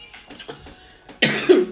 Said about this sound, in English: Y'all gotta excuse him. We got baby lungs around here, so you might hear a cough or two every now and again.